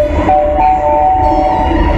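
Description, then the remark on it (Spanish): A train rumbles past, with a loud, steady low roar and a sustained high-pitched whine running over it for about two seconds, with no voices. “nos marchamos rápido porque yo tenía que marcharse rápido a coger el último tren.”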